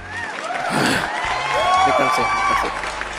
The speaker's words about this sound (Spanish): Quiero que reciban con un fuerte aplauso al hombre más chilú de Chile,